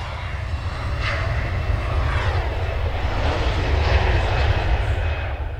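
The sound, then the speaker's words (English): A jet airplane with an Irish registration roars loudly, a dense, steady rumbling whoosh that swells slightly in the middle as it passes near an airport in Copenhagen, with no voices. “The number is right in front of the engine, below the windows.”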